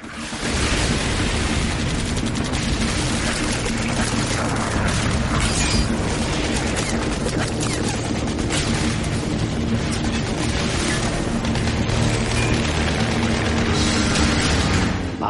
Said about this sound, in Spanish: Explotaban minas. Los proyectiles de los morteros silbaban.